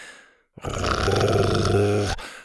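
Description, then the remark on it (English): A deep, sustained dinosaur growl rumbles for about a second and a half, rough and loud with a raspy low roar, ending abruptly after a brief quiet start, from Buck, a T. rex lowering his big red head. “Buck lowered his big red head and growled at them.”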